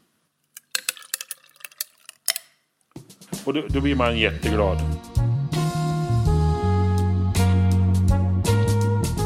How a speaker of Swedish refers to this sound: Och är isen riktigt kall som den var och ligger inte framme som många låter den göra, då ska det knaka och smälla. Så att om du lyssnar på isen.